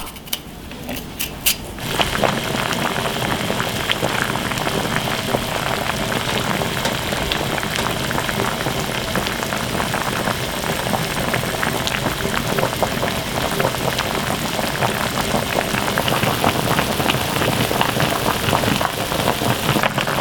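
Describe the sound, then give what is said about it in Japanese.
A pot of hot oden simmers and bubbles steadily, a dense crackling of small bursts that continues without pause after a brief quieter start. “寒い日に恋しくなる熱々おでんのいい音それではお聴きください。”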